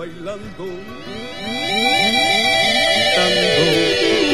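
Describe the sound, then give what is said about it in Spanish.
A theremin plays wavering, swooping tones that glide up and down in pitch, growing louder and fuller after the first second and a half, played alone. “Y el Teremín. A ver, dale, dale, a ver cómo es.”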